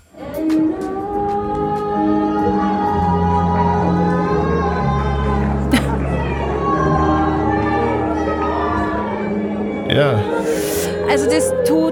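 A drunk woman in a theatre audience in Manchester bawls along to a song from a musical performance, loud and off-key, her strained singing riding over continuous music for about twelve seconds, with a brief burst of noise near the end.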